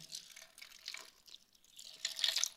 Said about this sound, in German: Das gute Münchner Wasser, das hier rauskommt. Und der Unterschied ist natürlich, wie du siehst, es ist eine Quelle. Sie hört nicht auf, sie versiegt nicht.